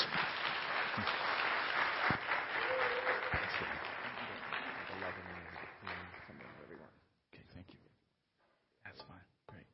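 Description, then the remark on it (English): A large indoor crowd applauds steadily for several seconds to welcome a guest speaker one morning, the clapping gradually thinning and fading out, with a few voices and scattered sounds afterward. “And uh, so, would you give him a life tree welcome this morning, please,”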